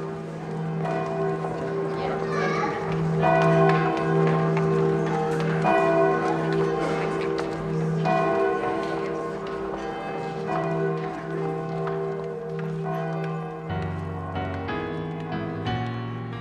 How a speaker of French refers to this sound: on va écouter un, petit extrait de cet album qui s'appelle …